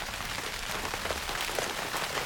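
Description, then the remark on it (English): Steady rain patters on a tent, a dense, even hiss of drops with occasional brighter taps, continuous with no voices. “I had a phase where I slept with a soundscape, rain in a tent.”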